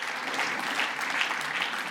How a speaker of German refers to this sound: Danke vielmals, ihr dürft den Platz nehmen. Sie können noch einen gewaltigen Applaus für...